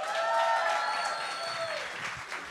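Steady applause from a group for all mothers, celebrating the month of mothers: a dense crackle of many hands clapping at an even level throughout, with a few whistle-like tones gliding over it.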